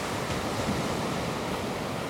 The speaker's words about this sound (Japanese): リラックスできたら波の音に耳を傾けてみましょう軽く目を閉じてよく晴れた空青い海白い砂浜に寄せる波をイメージしてみてください波が寄せては引いて心地よい音が聞こえます